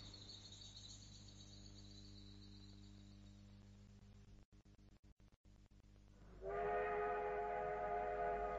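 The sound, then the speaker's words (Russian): A train rumbles steadily along a railway with a low droning hum, then a loud, sustained train whistle blares near the end, cutting sharply over the rolling noise. “Это был сигнал к атаке. Подхватив рюкзаки и сумки, концы кинулись к железной дороге. В этом месте поезд обычно замедлял ход.”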